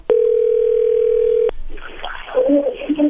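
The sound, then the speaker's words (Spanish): A loud, steady telephone dial tone holds for about a second and a half while a phone call is being placed, then cuts off abruptly and a voice begins talking over faint line noise. “Bien, ahora vamos a marcarle a ver si te manda los chocolates a ti o se los manda alguien más, ¿ok?”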